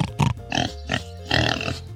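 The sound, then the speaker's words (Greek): A run of four or five short, throaty pig grunts in quick uneven succession, fairly loud, with no talking over them. “Λοιπόν, ζώο νούμερο 2. Γουρούνι. Γουρούνι. Με το χαρακτηριστικό.”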